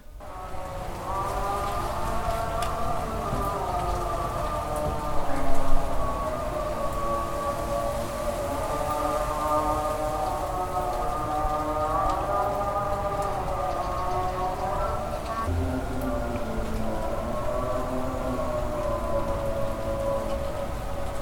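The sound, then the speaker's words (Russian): A long-drawn Muslim call to prayer heard from the street outdoors in Israel after dark, a single voice chanting sustained wavering melodic phrases, partly veiled by a steady rain-like hiss throughout. “это у арабов началась молитва.”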